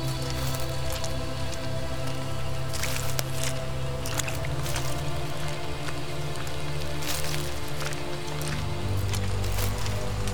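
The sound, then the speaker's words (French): Wet, squelching footsteps plod steadily along a muddy forest path, each footfall a soft squish, set against a constant hiss of rain pattering on the ground. “Tu es bercé par le bruit de tes pas sur la boue du sentier.”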